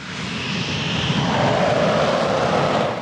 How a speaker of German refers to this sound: Zwei Kampfjets vom Typ Eurofighter zünden ihre Triebwerke, donnern über das Rollfeld in den grauen Himmel über dem Fliegerhorst Lechfeld bei Augsburg. Es ist Mitte Mai.